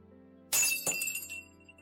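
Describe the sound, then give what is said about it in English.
Glass Christmas ornaments break with a sudden bright crash, followed by a second smaller burst and a tinkling scatter of shards that rings out and fades over a low steady hum. “Santa is putting the big present under the tree. And he broke some of the balls.”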